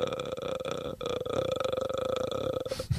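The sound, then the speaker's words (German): A voice imitates the ghostly croaking rattle from a Japanese horror film: a sustained throaty clicking drone lasting a few seconds, fairly loud, ending with a brief breathy burst. “das war dieses Geräusch bei The Grudge”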